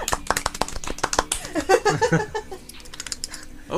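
A quick burst of sharp, irregular hand claps, fairly loud and fast, with a brief voice or laugh mixed in partway through before the claps thin out.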